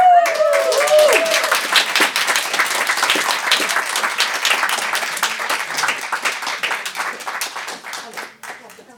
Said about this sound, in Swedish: Mina damer och herrar, det är med största nöje jag presenterar … i egen hög person. En stor och rungande applåd för ….